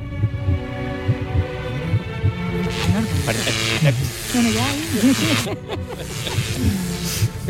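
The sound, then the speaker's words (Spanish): An amplified heartbeat picked up by body sensors thumps steadily in a low, booming rhythm, prominent, with a hum and faint murmuring voices underneath. “Mira cómo suena el corazón.”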